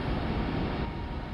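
A steady, dense roar of rushing wind on the moon Titan, recorded in 2005 by the Huygens space probe as it descended through the thick atmosphere to the surface, continuous and unchanging in loudness, with a deep rumbling low end and hissy upper texture, heard alone without any voices.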